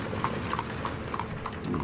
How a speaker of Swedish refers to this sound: Och eh, då kommer den här droskan, stannar in.